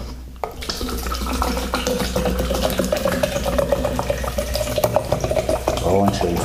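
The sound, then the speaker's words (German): Mineral water pours steadily into a cup, a continuous splashing stream lasting several seconds, with a bubbly ringing tone as the cup fills, then tapering off near the end before the cup is full. “So, jetzt gieße rein.”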